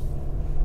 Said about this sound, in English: I'm driving right now.